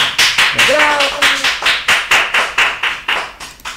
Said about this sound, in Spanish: Ella está en Bogotá y quiero darle un fuerte aplauso. ¡Aplausos!